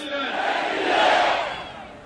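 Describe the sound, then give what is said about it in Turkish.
A large crowd at a political rally in Turkey roars together in one sustained, loud collective shout, swelling to a peak midway and easing off slightly toward the end, with no single voice standing out. “Gül bir Sada ile seslenelim. Türkiye duysun.”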